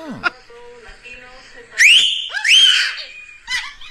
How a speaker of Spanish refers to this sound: Los mandamos a que le chiflaran, le chiflaron.